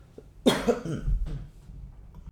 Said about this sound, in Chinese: 暂停一下，讲到这这几个就开始咳嗽，哎，怪怪的，有古怪。